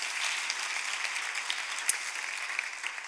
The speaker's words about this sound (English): But what we want to do right now, collectively, everyone in this room, is just applaud you for your encouragement, your prayer, even financial support.